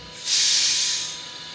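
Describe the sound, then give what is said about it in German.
An electric Talent 2 commuter train of the Werdenfels network, numbered 2442, pulls into a station and gives off a loud burst of pneumatic hiss that swells quickly, holds for under a second, then fades. No voices are heard. “So, die Profis und euch haben jetzt schon am Geräusch gehört, welches Fahrzeug hier gerade vorgefahren ist. Ja. Also eine Hamsterbacke aus dem Werdenfelsnetz.”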